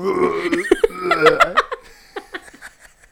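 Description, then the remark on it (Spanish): A voice mimics someone vomiting in a bathroom with harsh, guttural heaves and gagging bursts, loud, then trails into a few short, breathy laughs. “Y yo creo que mientras, estaba en el baño vomitando, si había personas como que afuera, que escuchaba de que, güey, alguien se está vomitando.”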